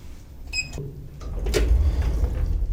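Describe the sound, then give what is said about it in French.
During an elevator maintenance check, an elevator's sliding door rumbles shut with a low mechanical drone, a brief high ringing chime early on and a sharp clack as the door meets its frame. “Donc là, ça ferme bien.”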